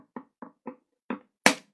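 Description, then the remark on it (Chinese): Two small wooden sticks drum on a small round stool used as a drum: five short, hollow knocks in an uneven rhythm, a brief pause before the last two, and the final strike loudest and sharpest. No voices. “小花猫拿了两根小木棍儿，在小凳子上敲了起来。”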